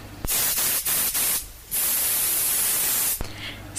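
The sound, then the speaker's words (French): Tarzan anti-mosquito spray is sprayed from an aerosol can at a tiger mosquito in an apartment, in loud, hissing bursts: a few short sprays, a brief pause, then one long continuous spray and another starting. No one speaks. “tu veux survivre dans la jungle athénienne, achète l'anti-moustique Tarzan.”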